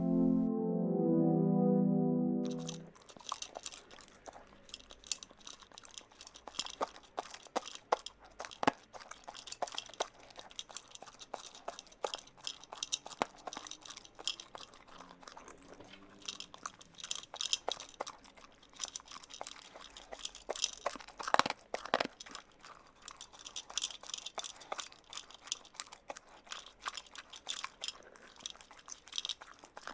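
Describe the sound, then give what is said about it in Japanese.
Sounds of a dog eating dry dog food (kibble): rapid, irregular crunches and crackles keep up steadily for nearly the whole stretch, following a brief tonal hum at the very start. No one speaks. “さてお次は咀嚼音です今回は犬の咀嚼音咀嚼というかドッグフードを食べる音でございますさあ手を止めて音に集中してみますよ”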